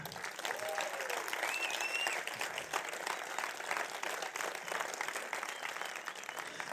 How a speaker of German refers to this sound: Und jetzt stehen mal alle Groupleiter auf. Wieder aufstehen. Und die haben mal einen fetten Applaus verdient, oder?